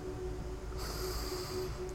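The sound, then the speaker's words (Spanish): A deep, drawn-out breath taken in during a spiritual breathing exercise, a steady airy rush that grows brighter partway through, with no talking. “Haré respiración para aportar vida y conciencia.”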